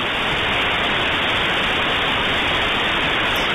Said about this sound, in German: Klingt so ein bisschen wie in ein Fax reinhören, was übertragen wird. Nee, äh, äh, nee. Modem. Das klingt ziemlich scheiße.